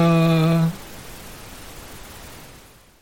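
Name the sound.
static hiss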